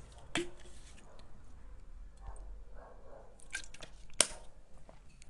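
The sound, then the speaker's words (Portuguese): Someone takes a few quiet sips of water, with wet mouth clicks and swallows spaced out among soft breathing and small handling noises. “Gente, é eu tô lendo tanto que eu tô com dificuldade agora pro final, mas é porque, sabe, quando já falou muito, eu preciso tomar um, um pouquinho de água? Aguenta aí.”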